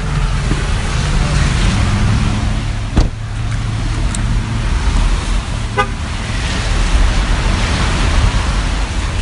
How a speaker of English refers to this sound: And here I am, all full of umbrellas. It's pouring rain.